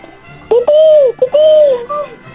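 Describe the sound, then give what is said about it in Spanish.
A boy imitates a chicken with two loud, drawn-out squawking calls in quick succession, with a brief pause between them and no other talking. “Ahora puedes hacer el ruido de una gallina.”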